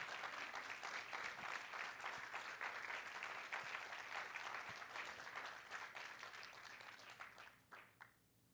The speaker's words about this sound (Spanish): Vamos a dar un aplauso al Señor fuerte en esta mañana.